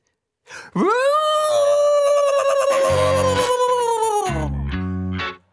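A dog howls like a siren in one long, loud wail that swoops up sharply, holds steady for several seconds, then slowly slides down, with a few low thumps beneath and no talking.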